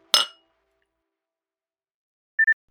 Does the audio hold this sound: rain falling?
no